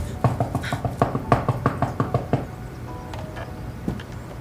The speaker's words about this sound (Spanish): Madrid, año 1920. Alejandra, Patricio y Lili dejan cuidadosamente a Ava en la puerta de su casa mientras que Seitrey toca a la puerta.